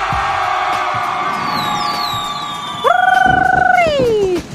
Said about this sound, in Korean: 오늘 함성 좀 마음에 듭니다. 시작이 좋고요.